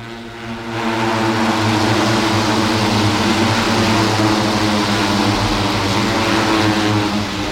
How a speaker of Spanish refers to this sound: Me salgo del box de la Federación Andaluza de motociclismo donde estábamos y tengo ya vista directa de la, del trazado. Estas son las motos pasando en la segunda vuelta justo por la curva Ferrari.